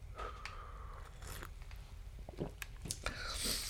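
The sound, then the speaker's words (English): Quiet mouth sounds of someone sipping coffee: a few soft slurps and wet clicks as they swallow, with a brighter hiss near the end and no talking. “Second challenge in reading the Bible after I get another sip of coffee”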